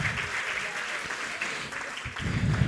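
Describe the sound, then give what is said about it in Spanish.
An audience at a Spanish-language prayer service applauds loudly to declare victory. It is a dense, steady wash of many hands clapping together that holds throughout and swells slightly near the end, with no one speaking over it. “declare victoria con un fuerte aplauso.”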